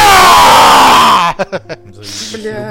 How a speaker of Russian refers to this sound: Слушай, он так, я так кричу, что у меня вот этот микрофон просто сплошным синим.